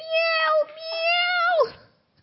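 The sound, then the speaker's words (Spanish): A person imitates a cat's meow in a drawn-out, wavering tone, sustained for about a second and a half before sliding down at the end, fairly loud. “Pero maullaré por ti, no importa, trátame mal, yo seguiré maullando bajo la lluvia.”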